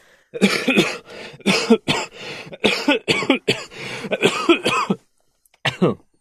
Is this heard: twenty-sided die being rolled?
no